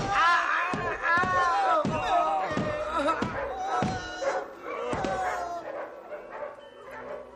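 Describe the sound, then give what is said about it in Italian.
Several unleashed dogs, set on beggars in the street, bark loudly and repeatedly, a rapid, overlapping volley of sharp barks with a busy, agitated commotion underneath throughout. “Slegate i cani ed aizzateglieli contro!”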